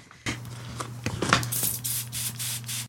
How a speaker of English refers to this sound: You've got something to spray as well, look.